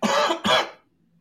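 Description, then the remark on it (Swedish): Two quick, explosive sneezes in a row, loud, each a sharp breathy burst that fades out fast with no talking around them. “prosit.”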